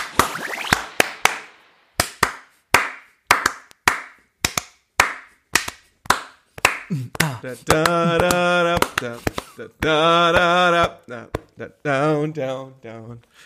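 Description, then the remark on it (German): Hand clapping in a steady beat of sharp, crisp claps, about two per second, continuing throughout; midway a voice joins with sustained, wavering tones over the claps. “Ich habe mir gedacht, besonderes zur Folge 169 klatschen wir mal in die Folge rein.”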